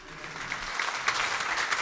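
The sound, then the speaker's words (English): An audience at a live music event claps steadily for a band, a dense wash of many hands with a few sharper claps poking out, holding at an even, moderately loud level throughout. “Y'all give another round of applause for this wonderful man”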